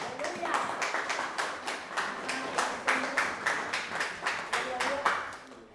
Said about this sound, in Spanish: Bendito y alabado el nombre del Señor. Démosle un aplauso a Cristo.